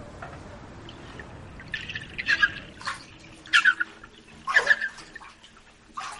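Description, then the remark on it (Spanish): Water sloshes and splashes over the rim of a small bathtub with two adults in it, spilling onto the floor, coming in several short irregular surges with brief squeaky bits, over a low steady background. “Para, que se sale el agua y lee el guión.”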